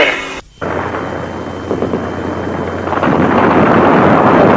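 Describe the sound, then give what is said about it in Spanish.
Gunshots fired at a room in La Moneda, which is being bombarded, crackle amid a dense, continuous roar of noise, with scattered bursts that grow louder and more intense toward the end; no clear talking. “Continúan los tiros.”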